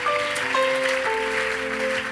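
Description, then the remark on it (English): A crowd claps steadily, a dense wash of hands filling the whole stretch, with sustained keyboard or organ tones ringing underneath. “Oh, look at the way you are clapping.”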